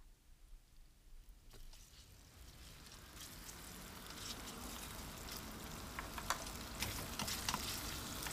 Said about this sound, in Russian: Она всегда добавляет в них ужасно много масла, чтобы ничего не пригорало. Раскаленное масло шкварчит, летит во все стороны